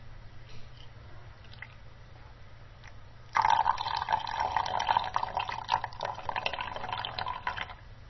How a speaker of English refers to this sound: Let's demonstrate it. I'm going to start pouring liquid into the jug now. You may be able to hear it on the recording, actually.